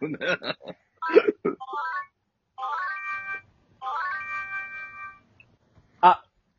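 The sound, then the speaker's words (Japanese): A voice imitates a pachinko jackpot confirmation sound: quick chirpy syllables and a stepped rising note, then two long, steady, high-pitched tones, ending with a short sharp burst. “パチンコで脳汁が出る確定音を考えよう”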